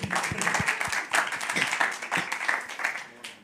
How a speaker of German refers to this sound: Das ist ein Applaus wert.